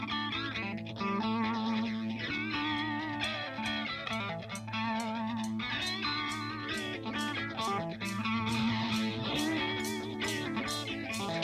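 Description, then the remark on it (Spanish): A 1970s rock song, a single from a band's first album, plays at full volume, with distorted electric guitar riffs, steady pounding drums and a strong, sustained bass, all driving forward at a lively tempo without any talking. “Vos elegiste este tema que es genial y que fue uno de los simples del disco.”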